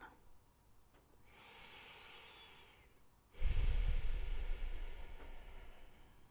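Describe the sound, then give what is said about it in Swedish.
A single breath of a person sitting close to the microphone: a soft, airy inhale followed by a louder, rushing exhale with a low rumble of air hitting the mic, then fading away. “Och där hörde du ett av mina andetag.”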